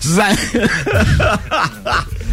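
A loud fit of coughing mixed with laughter, several voiced bursts in quick uneven succession, with no clear words spoken.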